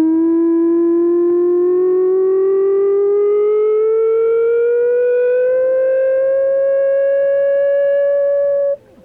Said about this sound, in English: That unearthly sound is made by a Weddell seal, a large seal that can dive almost 2,000 feet deep under Antarctic ice, chasing the squid, fish, crab, and shrimp that it eats.